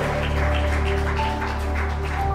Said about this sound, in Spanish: Los que creen que Jesús nos ha hecho vencedores, denle un aplauso a Él. Vamos, porque Él vive.